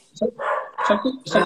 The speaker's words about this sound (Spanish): Está, ladrando el dálmata. no hay problema, yo no lo escucho.